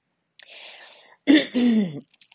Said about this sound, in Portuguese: Ai, nossa, até depois disso até deu um pigarrinha, né?